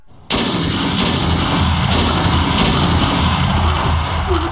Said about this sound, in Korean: 높다란 비계 위에 올라간 외적의 병졸들이 성 안을 내려다보면서 마구 조총을 쏘아댔다.